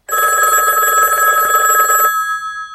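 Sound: telephone ringing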